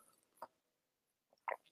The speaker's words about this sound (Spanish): bueno, por cierto, aquí mi tacita de café, que me lo doy un traguito